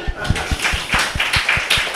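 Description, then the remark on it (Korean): A crowd claps together in a steady, quick rhythm, about ten sharp beats over two seconds, fairly loud, with a faint murmur of voices underneath. “드셔보실래 박수 한번 주시죠.”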